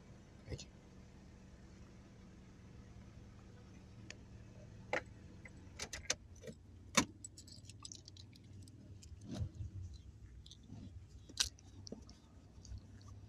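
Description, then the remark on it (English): Someone climbs out of a car to go to a big red blood donation bus, with scattered clicks, rustles and a light metallic jingle of keys, irregular and fairly quiet over a low steady rumble. “actually going to enter, exiting my car, going to the big red bus itself.”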